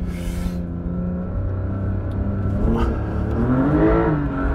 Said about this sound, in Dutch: Wat, oh, als je hem dan zo'n beetje doorhaalt, dan klinkt het ook zo geweldig. Hè? Oh, lekker venijnig. En eigenlijk heb je alleen op sneeuw of dit soort zand dat hij zo'n motor zeg maar, zo snel zo toeren kan maken.